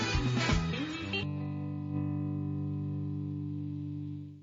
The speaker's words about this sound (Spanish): yo lo estuve escuchando hace rato y de verdad que tremendo tema y como lo dice ahí, bastante, bastante denso. Un plato fuerte del disco, de verdad que sí. Así que bueno, vamos a escucharlo, vamos a tripeárnoslo